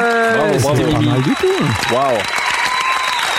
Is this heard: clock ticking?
no